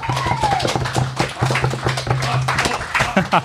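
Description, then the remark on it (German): A crowd at a bar applauds, a dense, steady crackle of many hands clapping at once that stays fairly loud for a few seconds, with a low hum running underneath. “Können wir mal einen ganz großen Applaus”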